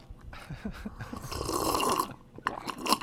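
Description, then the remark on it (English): Crunchy, loud chewing of toast, with irregular crackling bites and a dense burst of munching in the middle, with no talking. “I'm just trying oh to finish God. my toast.”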